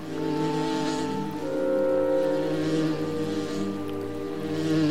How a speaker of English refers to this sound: He couldn't smell him either, and the only thing that he could hear was buzzing bugs and the rushing river.